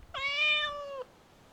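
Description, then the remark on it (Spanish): A single drawn-out meow from a kitten named Panchito Cabrera, lasting about a second, clear, steady in pitch before dipping slightly at the end, with nothing else but faint background hush. “¡Salude, gatito!”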